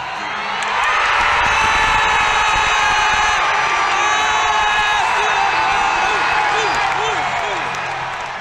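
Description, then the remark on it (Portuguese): A huge Brazilian crowd in the stadium stands roars and cheers an athlete's jump as if it were a football goal, a sustained, loud wall of sound with overlapping shouts, whoops and high-pitched yells rising above the din for several seconds. “Foi pro tudo ou nada, e aí ele vai e passa esse momento é difícil eu explicar a reação da arquibancada, porque as pessoas pulavam como se fosse um gol de futebol.”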